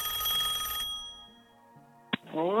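A telephone bell rings loudly with a bright metallic trill, then cuts off and fades, followed by a sharp click and a rising electronic tone as the line picks up: an incoming listener call to the El Heraldo Radio program.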